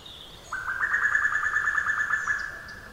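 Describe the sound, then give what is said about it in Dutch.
A female cuckoo's rapid bubbling call pours out in a fast, even trill lasting a couple of seconds, clear, with faint higher bird notes behind it. “Dat geproest, heb je dat gehoord? Dat is het wijfje.”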